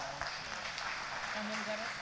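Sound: applause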